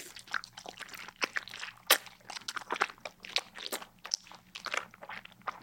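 Crisp crunching of a celery stalk, with a sharp snap early on followed by a steady run of wet, fibrous bites and crackles, no voices.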